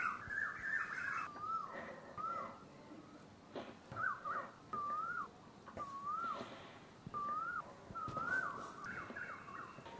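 Birds call repeatedly outdoors, a series of short, rising-and-falling tonal notes at a steady interval over soft background ambience, clear, with no one talking.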